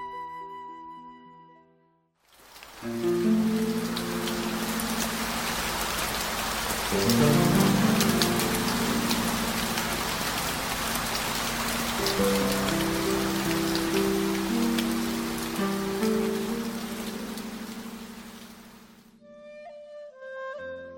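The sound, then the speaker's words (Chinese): Steady, dense rain hisses for about sixteen seconds, starting and stopping abruptly, with a soft melodic music bed playing underneath and continuing briefly after the rain ends. No one speaks. “雨声渐渐的住了。”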